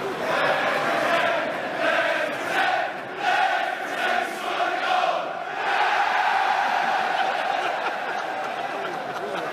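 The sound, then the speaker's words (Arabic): A large crowd of English Premier League football fans chants together against their own team for failing to score, in loud, steady unison, with rhythmic pulses in the first half before the voices blend into a sustained roar. “وفي الدوري الانجليزي برضو لما جمهور فريق يبدا يفصل على فريقه انه ايش ما سجل لين دحين او ايش خلال اخر مثلا ثلاثه او اربع مباريات ما سجلنا ولا جول فيقولوا لهم الكلمتين هذه”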